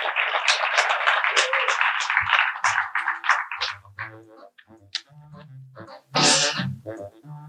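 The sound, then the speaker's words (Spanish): Audience applause at a talk on job interviews fills the opening seconds, a dense, steady patter of many hands clapping, then fades into a voice speaking with some brief noisy bursts. “Dale un fuerte aplauso a”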